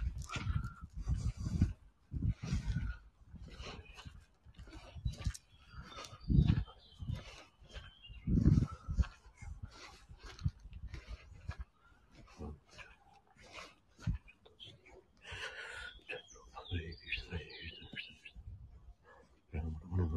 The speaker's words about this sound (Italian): con un sottofondo un po' più carino di silenzio uccellini e profumo di fiori pazzesco buonissimo